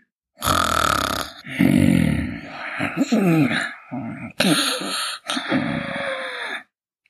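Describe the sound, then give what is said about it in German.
A voice imitates loud snoring, as of someone asleep on a green meadow under a tree after a large meal, with a string of drawn-out rasping snorts and throaty rumbles over about seven seconds, with brief pauses between breaths. “Müde von diesem üppigen Mahl schlief er bald laut schnarchend ein.”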